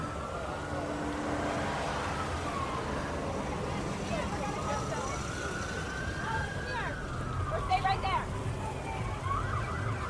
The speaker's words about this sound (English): Here we go. Long line of cars here.